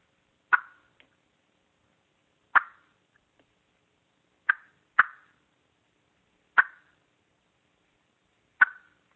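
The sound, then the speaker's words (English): Sharp, isolated turkey clucks made on a mouth call, six short popping notes spaced irregularly a second or two apart, clear with silence between them. “But a cluck is a single note. It's very simple to do.”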